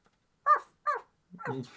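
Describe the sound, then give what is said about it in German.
A dog barks three times at villagers coming around a corner to give chase: two short, sharp barks in quick succession, then a longer, rougher one that trails off. No one speaks over them. “Äh, der lässt das zu, aber als dann die Dorfbewohner um die Ecke kommen und die verfolgen wollen, bellt er sie an.”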